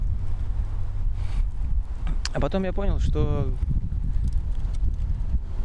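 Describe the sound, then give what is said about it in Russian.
Steady low rumbling wind buffeting a microphone throughout, with a man speaking briefly in Russian in the middle over the constant blustery noise. “Так вот ветер, сейчас я попытаюсь отгородиться.”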